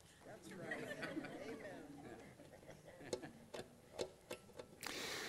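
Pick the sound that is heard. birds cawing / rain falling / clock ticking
clock ticking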